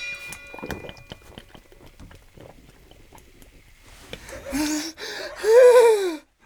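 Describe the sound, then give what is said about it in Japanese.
Several quiet, wet gulping swallows as cola is drunk fast in Kimura Subaru's cola speed-drinking challenge, then loud strained gasps and wheezing breaths, ending in a raspy, choked vocal groan. “これが俺の覚悟です届け林社長いきますシャ木村昴のコーラ早飲み用意、スタート”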